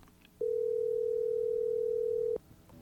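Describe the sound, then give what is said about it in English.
A steady, loud telephone dial tone hums at a single pitch for about two seconds as a call is being placed, starting and stopping abruptly against a quiet background with no voices. “So let's go ahead and get her on the line.”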